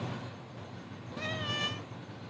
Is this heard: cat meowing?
yes